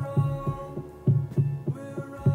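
A steady, deep heartbeat thumps in regular double pulses, low and muffled, over a sustained droning hum with faint tonal layers above it.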